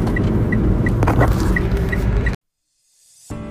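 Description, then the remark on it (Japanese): Steady low engine drone inside a kei truck cabin, recorded on an iPhone set on the dashboard, with a faint, regularly repeating high tone over it, then an abrupt cut to silence before a new sound begins. “えーちょっとね、えー、Bluetooth マイクをつなぎ忘れていたので軽トラでそのままあダッシュボードに置いてスマホで撮ってし iPhone で撮ってしまったんですけどもあお聞き苦しい点があったらお詫び申し上げます”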